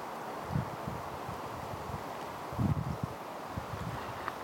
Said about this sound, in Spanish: Sí, justo pensaba que ojalá se pudiera grabar bien el sonido del aire en los árboles y no el viento en el teléfono